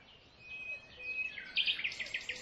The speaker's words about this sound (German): Noch versunken in seine Schokolade und dem Konzert der erwachenden Vögel.